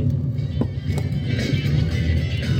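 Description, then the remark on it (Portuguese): Inside a moving car on a rainy day in Santa Catarina (SC), Brazil: a constant, fairly loud low rumble of engine and road noise, with a soft, steady wash of rain over it and a couple of small knocks. “Hoje no carro e chove em SC.”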